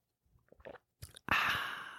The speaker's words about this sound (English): I don't know if you could hear that or not, but that was me drinking some lit lemonade.